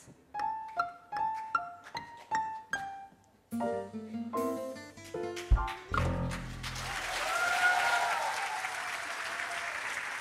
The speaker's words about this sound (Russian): Вы как-то, вы знаете, вот аплодируете громко, а кричите тихо. Убедительно.